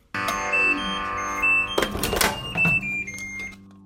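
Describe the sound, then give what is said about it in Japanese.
A microwave oven hums steadily while short, high electronic beeps chime a few times, with a brief rattling clatter midway before the hum fades out. “電子レンジはワット数ワット数に注意しながら聞こわべね”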